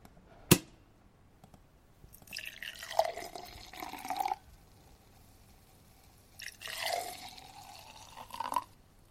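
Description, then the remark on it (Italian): A sharp single pop as a bottle, just taken from the fridge with its paper already removed, is uncorked, then liquid is poured in two separate glugging bursts, with gurgling gradually rising in pitch as each glass fills. Clear, with no talking. “non so se la vogliamo stappare adesso, io la prendo dal frigo”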